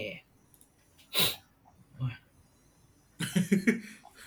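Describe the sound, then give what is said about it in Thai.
A few short, sharp nasal sniffles, spaced apart by quiet pauses, followed by a cluster of quick breathy snorts and noisy exhales toward the end, as people sniffle in bad, cooling weather. “อากาศไม่ดีแล้วสูดจมูกกันไปมาเนี่ยพอเออวันนี้เป็นเป็น อากาศก็กลับมาเย็นขึ้นจริงๆวันนี้”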